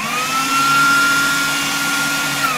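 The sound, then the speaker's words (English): A food blender running steadily, with a loud, continuous motor whine and a high tone that holds almost unchanged throughout, with no voices over it. “That's a that's a food blender.”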